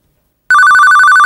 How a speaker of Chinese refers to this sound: 就在这个时候，电话在最不应该响的时候响了起来。